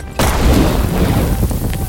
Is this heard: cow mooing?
no